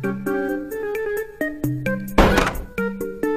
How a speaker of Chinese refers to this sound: 嗯。大狼刚回家，门又开了。